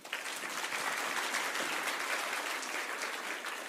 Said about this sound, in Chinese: 还敢拍拍手